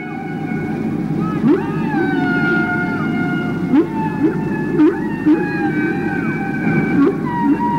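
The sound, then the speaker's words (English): Whale song: drawn-out tonal moans layered with short rising whoops that repeat every second or so, steady and clear over a low underwater rumble, with no voices. “and in the live version, there's also the whale song”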